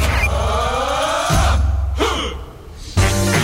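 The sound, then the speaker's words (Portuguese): A loud, harsh rumble of a heavy truck braking in intense street traffic below the Gemini building, with squealing tones sliding in pitch over the engine noise, then a hiss and abrupt bursts as it stops. “Algum caminhão freou, fez alguma coisa, fez um tipo.”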